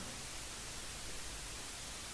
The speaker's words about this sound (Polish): Zaczyna być słychać tylko taki szum statyczny. Przynajmniej tak ci się wydaje.